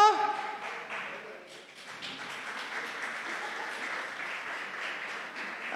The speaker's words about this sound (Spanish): Un fuerte aplauso.